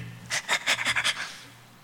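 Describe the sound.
Quick, heavy panting: about six sharp, breathy huffs in a steady rhythm, fairly loud, trailing off into a softer exhale. No speech.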